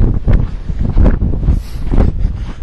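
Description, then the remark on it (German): Loud, blustery wind buffets the microphone, producing continuous low rumbling gusts that rise and fall throughout, with no voices. “Vielleicht hört man auch den Wind.”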